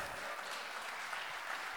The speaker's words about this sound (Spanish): Y si esta es su experiencia, dé un fuerte aplauso y diga gloria a Dios, por favor.